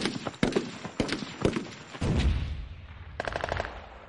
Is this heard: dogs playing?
no